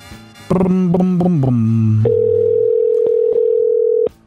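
A phone line ringing on an outgoing call: a loud, stepped series of descending electronic tones, then one steady, mid-pitched ring tone held for about two seconds before it cuts off.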